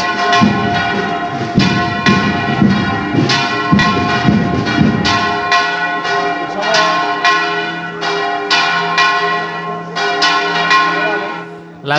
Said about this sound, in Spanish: campanas de esa Basílica Menor de San Ildefonso que anuncian eh, que va a ser la misa a las 11 de la mañana en esa Basílica Menor